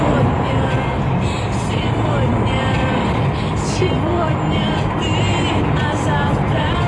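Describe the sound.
A person sings a pop song inside a car with the windows open, the voice partly buried under a constant, loud rumble of road and engine noise that runs through the whole stretch.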